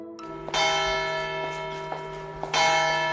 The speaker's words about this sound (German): Das hier sind die Glocken einer Kirche in einem französischen Städtchen namens Seyra. Klingen wie Kirchenglocken halt klingen, aber sie sind in den letzten Wochen zu einem richtigen Aufregerthema in der Stadt geworden.